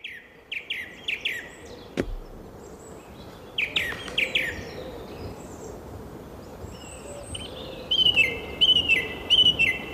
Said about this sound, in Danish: Så det er simpelthen en sangdrossel